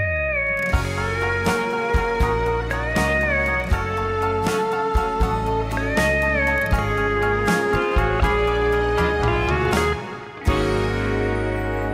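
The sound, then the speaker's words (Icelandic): A song plays with a steady beat, deep bass and sustained melodic lines over it, with no singing; the music briefly drops out near the end before picking back up. “Ég ætla að spila annar lag með eftir hann hérna,”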